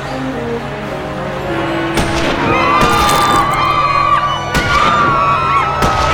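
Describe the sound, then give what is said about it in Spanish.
A loud crowd on a street cheers and whoops as President Kennedy's car passes, then at half past twelve sharp rifle gunshots crack out several times at irregular intervals, cutting through the ongoing shouting of the crowd. “Un reloj dio las doce y media de la mañana cuando los disparos comenzaron a resonar por toda la calle.”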